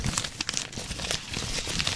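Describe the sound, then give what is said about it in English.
Wrapping paper crinkles and rustles continuously as a person wrapped up and stuck in it tries to get out, with short sharp crackles and small tearing-like bursts scattered throughout, steady in loudness, no voices. “Like a, a burrito, kind of like with the wrapping paper all around my body.”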